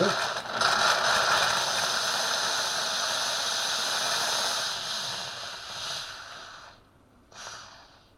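A coffee machine's milk frother hose is purged with steam to disinfect the outlet, giving a loud, steady hiss for several seconds, cutting out briefly before a short final burst of steam.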